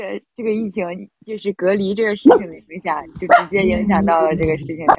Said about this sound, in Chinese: 为什么有狗叫啊？